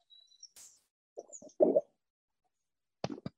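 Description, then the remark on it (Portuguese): Someone gulps down water from a mug: a cluster of short, wet, throaty swallows, then two more sharp gulps after a brief pause. Faint thin chirps are heard at the start. No talking. “Nossa, essa engolida aí de água vocês ouviram até em casa.”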